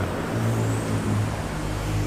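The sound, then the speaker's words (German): Steady, dense road traffic rumbles in a London street, a continuous low engine drone from cars and heavier vehicles with a faint higher whine drifting across, with no voices. “zu Spaziergängen und sogar zu einer Radtour durch London entschlossen und das, obwohl sie hier nicht auf der rechten, sondern eben auf der linken Seite fahren muss, bisweilen durch dichten Verkehr.”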